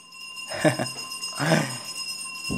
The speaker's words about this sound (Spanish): Perdonen si escuchan un una campana de fondo, pero es que en este momento está pasando el señor de la basura.